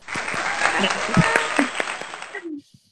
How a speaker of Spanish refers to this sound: Ok, muy bien, aplausos.